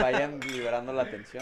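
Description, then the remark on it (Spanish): Glasses clink together in a toast to 'Salud', light bright taps heard under a man talking steadily. “Mira, vamos a dar un saludo para que...”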